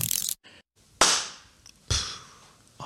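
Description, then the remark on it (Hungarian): Loud, sharp hand claps, about three of them spaced roughly a second apart, each a crisp burst that rings out and fades, with no talking. “ebbe a tapsban volt anyag.”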